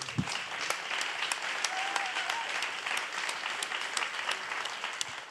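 An audience applauds an arriving guest steadily for about five seconds, a dense wash of clapping hands with no talking, sustained at an even level from start to finish.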